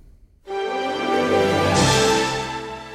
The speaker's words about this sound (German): Das erste, was ihr gehört habt, war auch dies, das Traumschiff-Intro.